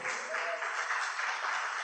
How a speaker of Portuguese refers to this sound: Você pode aplaudir ao Senhor, irmãos?